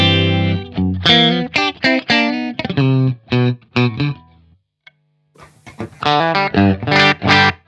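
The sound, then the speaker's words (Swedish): A Perra Telecaster electric guitar on its neck and middle pickups, played through an Olsson Club 40 amplifier into a Universal Audio Ox Box and a computer, plays a bright, choppy phrase of single notes and chords with slight grit, pausing briefly midway before resuming, with no voices. “Halsmick tele, mitt mittmick.”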